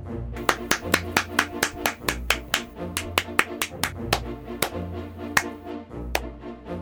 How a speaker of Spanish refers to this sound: Después de un rato aplaudiendo, el principito se había cansado y dejó de aplaudir.